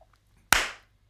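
One sharp, loud hand clap, made as a marker for later editing so the spot is easy to find in the waveform, cuts through near-silence, with a brief bright tail fading out over a fraction of a second. No voices are heard.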